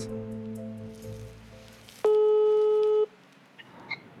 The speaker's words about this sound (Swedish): Jag sträcker mig efter telefonen igen och ringer samma nummer en gång till. Denna gång med maskerad identitet.